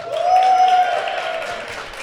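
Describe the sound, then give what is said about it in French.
An audience of about 200 people in a hall breaks into dense, steady applause in favour of reforming the voting system, many hands clapping at once, swelling quickly and then easing slightly over two seconds, with a thin sustained tone running through the first second. “Moi, j'anime, je n'applaudis pas.”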